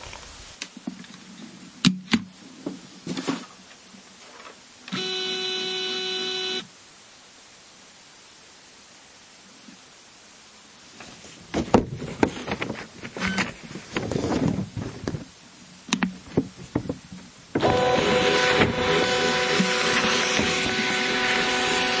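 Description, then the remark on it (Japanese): Clicks and handling as the lid of a ScanSnap document scanner is opened and it is switched on, a brief electronic tone, then paper rustling as a sheet is inserted and the button pressed, and a steady, loud mechanical whirr as the scanner feeds and scans it. No one speaks. “まずスキャンスナップの蓋を開けて電源を入れ紙を入れてボタンを押してスキャンします。”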